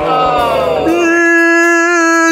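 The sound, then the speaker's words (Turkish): A person imitates the loud yawning of a man seated behind them on a plane flight: a strained, drawn-out voiced sound that slides down in pitch, then settles into a long, sustained open-mouthed tone lasting about two seconds. “Mesela arkamdaki adam yol boyunca esnedi bağıra bağıra.”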